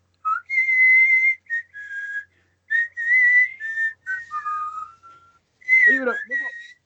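A person whistles a short melodic tune up close, with sustained and gliding notes in several phrases, ending with a brief burst of voice-like sound.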